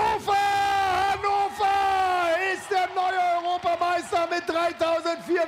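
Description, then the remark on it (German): Several voices of the Berlin team yell and whoop loudly, celebrating after winning bronze in a competition, sustained cries that swoop up and down in pitch, nearly continuous, breaking into shorter shouts toward the end. “Sie jubeln, sie hat Tränen.”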